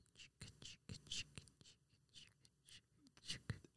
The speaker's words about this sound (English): Now the sound of brushing your teeth.